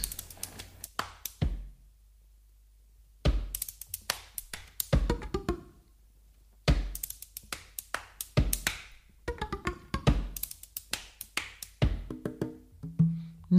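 Flute and percussion music: sharp, sparse percussive taps in uneven bursts separated by short silences, with a brief sustained wind tone near the end. Clear, close, and no voices.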